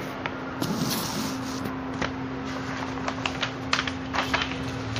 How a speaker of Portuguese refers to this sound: Tô abrindo aqui a folha, não sei se você conseguiu ouvir. Tá eu vou ler a primeira questão do simulado do Enem.